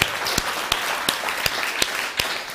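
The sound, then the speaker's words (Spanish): An audience applauds for viewers across the United States in a steady, dense wash of clapping, punctuated by sharp, louder claps landing in an even rhythm about three times a second. No one speaks. “Dele un fuerte aplauso también.”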